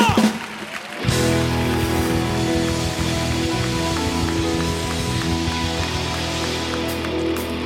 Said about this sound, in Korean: 감사와 영광에 큰 박수 올려드리며 경배와 찬양의 자리로 나갑시다.